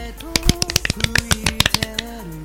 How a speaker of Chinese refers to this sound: 鼓掌